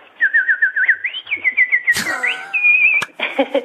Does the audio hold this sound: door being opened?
no